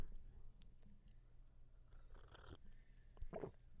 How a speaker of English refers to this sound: Mm, that was so good. Sorry. I don't know if you heard that. I took a gulp of my tea. I have elderberry tea it was called, the tea bag is called Elderberry Healer.